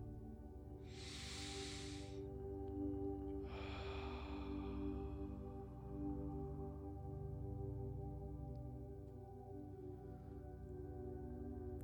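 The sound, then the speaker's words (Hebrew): A slow, deep breath taken in through the nose and out through the mouth during a guided breathing exercise: an airy inhale followed by a longer, softer exhale, heard alone over a steady low hum of background music. “נשימה עמוקה שתיכנס מהאף ותצא מהפה.”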